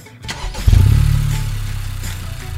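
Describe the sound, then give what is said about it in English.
A turbocharged Honda Civic engine cranks briefly, then catches with a loud low roar and settles into a steady, rumbling idle, with no voices. “That's the sporty Honda Civic. It's got an available turbocharged engine I'd recognize anywhere, even without the blindfold.”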